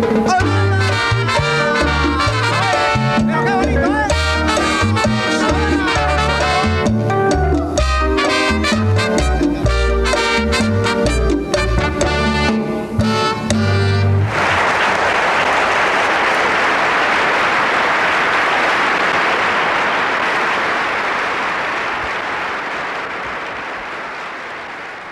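A live band plays the closing bars of an upbeat tropical song with brass and percussion, then the music stops and loud, sustained crowd applause fills the rest, slowly fading.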